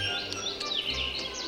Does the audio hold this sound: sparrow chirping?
yes